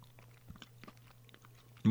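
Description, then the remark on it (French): Someone chews a cracker with spread, making a handful of irregular, crisp crunches over a steady low hum, then a sudden loud burst of sound cuts in at the very end. “Goûte-le tout seul d'abord, puis après sur ton craquelin, là, tu vas voir.”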